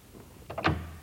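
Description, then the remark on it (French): A false door in a radio drama studio, used for sound effects: a couple of quick latch-like clicks followed by a firmer thump as it shuts, brief and fairly quiet, with no voices. “Vous avez des fausses portes”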